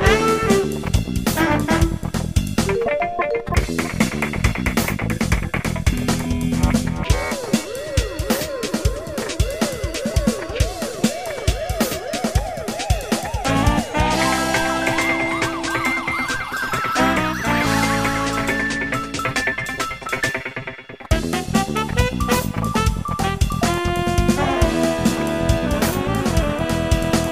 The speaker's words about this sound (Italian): E senti qua quante groovy e catchy la musica.